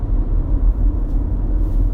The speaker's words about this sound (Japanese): 今車乗ってえー、あのウポポイに向かってるところですけれども